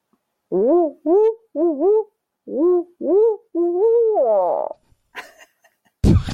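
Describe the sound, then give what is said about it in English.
A person voices a series of owl-like hoots imitating a bird call, about six rising-and-falling calls in a steady rhythm, fairly loud, followed by a brief burst of laughter and noise. “that sounded just like a bird call.”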